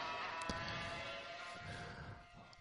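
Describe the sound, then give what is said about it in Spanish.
Racing car engines roar in a continuous, high-pitched whine with steady tonal harmonics, sustained throughout at a moderate level with no talking. “voy a callar un poquito que parece que estoy aquí detrás del del coche”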